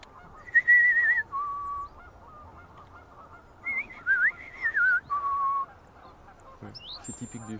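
Someone whistles an imitation of European robin song: a few wavering, melancholic, fluty phrases, improvised and never repeating, at moderate loudness, separated by long deep pauses, with faint background noise between them.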